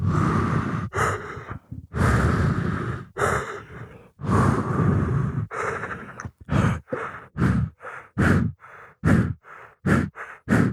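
Loud heavy breathing from a caller over a phone line, slow drawn-out breaths at first that quicken into a rapid, rhythmic run of short panting puffs, with no talking.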